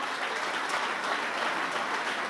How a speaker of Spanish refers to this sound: Si usted le va a dar un aplauso al Señor, déselo bien.